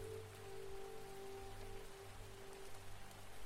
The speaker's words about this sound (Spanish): Un ruido constante. Este ruido Si te has parado un momento mientras caminas por un bosque, te darás cuenta que es un ruido muy similar al que hace un arroyo. El arroyo está circulando constantemente,